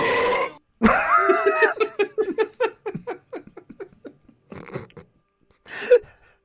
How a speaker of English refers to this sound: You should have played my longest, loudest burp uh, noise when she had that horrible face on.